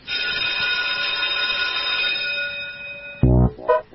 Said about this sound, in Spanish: así que le pido a la operadora y jefe de preceptores de este Tribuna de Doctrina del Instituto Paria, montado en los estudios de la AM750, que haga sonar el timbre para dar inicio oficial a una nueva clase de la escuelita de los sábados de Tomaidaca.